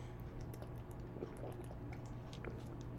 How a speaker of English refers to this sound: if you'll forgive me, I'll take a sip of water here,